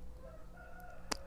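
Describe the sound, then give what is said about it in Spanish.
A rooster crows once in a quiet natural setting, a drawn-out, faint call over quiet background hum, followed by a brief sharp click near the end. “Este silencio, si escuchas de fondo a los pajaritos, al gallo, a las gallinas, hay perros también, de vez en cuando algún coche.”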